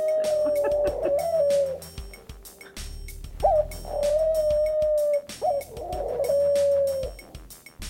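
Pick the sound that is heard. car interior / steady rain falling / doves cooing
doves cooing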